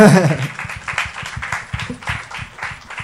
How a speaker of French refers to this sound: on peut l'applaudir.